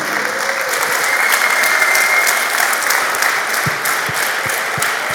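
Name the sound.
audience applause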